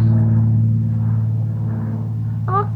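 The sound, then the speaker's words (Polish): An airplane passes overhead as a steady, low droning rumble with a constant humming tone, holding level throughout, and a brief high chirp near the end. “Poczekaj Kasiu, bo jakiś samolot Leci tutaj.”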